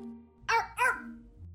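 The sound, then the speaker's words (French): Two quick, sharp dog barks in close succession over a low steady background hum with no talking. “L'aboiement, c'est le cri du chien.”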